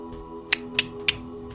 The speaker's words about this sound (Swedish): Ni hör klickanden ute i rummet från flera sådana här individer.